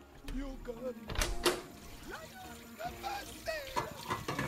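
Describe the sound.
A kitchen door is eased slowly open, with a couple of clunks and a brief rattling burst near the start, while voices and music from the kitchen continue around it at moderate volume.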